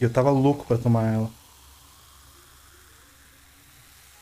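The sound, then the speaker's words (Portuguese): A man speaks briefly, then a soft, steady fizzing hiss carries on alone for a few seconds, quiet, as the foam of freshly poured beer bubbles. “eu vou deixar esperar essa, essa espuma baixar um pouquinho, deixa eu tomar um gole dela.”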